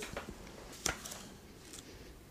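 Soft rustling of paper pages of a supplement booklet to the Protestant hymnbook being leafed through, with a few brief crisp flicks and one sharper snap, otherwise quiet with no talking.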